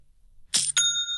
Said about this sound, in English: You got to love that sound. That's the sound of another sale taking place on Shopify.